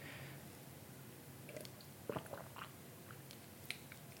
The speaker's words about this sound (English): Just getting a drink of water here.